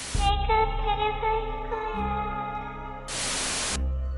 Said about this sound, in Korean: 전화가 합선된 듯 이상한 소리가 들렸습니다.